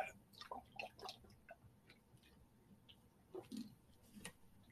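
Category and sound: food or drink, drinking water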